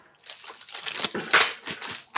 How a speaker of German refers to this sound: Ich glaube, ich schneide auf, weil so kriege ich es ja jetzt nicht raus. Ha? Ja, das ist, wie gesagt, es klebt wie Sau. Ja, ich merk's, ich merk's. Mhm. Also, so, ich gehe mit der Schere daran. Ja, ich muss auch aufschneiden.